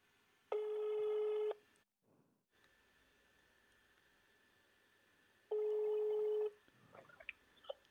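A telephone ringing tone on a call line as a call is placed live on air: two loud, steady electronic buzzes about a second long, separated by a few seconds of quiet line hiss, with faint rustling afterward.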